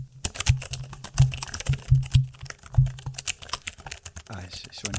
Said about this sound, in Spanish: Voy a acercar el micrófono al teclado para, que, para, que todo el mundo capte, no sé si lo pillara bien.